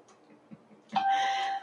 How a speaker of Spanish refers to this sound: Los teléfonos suenan hasta ahora, no se crean.